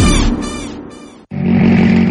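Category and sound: vehicle, rally car engine revving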